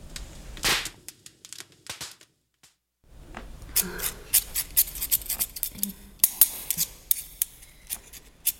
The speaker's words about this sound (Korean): 학교 끝나면 매일 엄마를 보러 미용실로 달려갔었어. 거기서 들리는 경쾌한 가위 소리가 그렇게 좋더라고.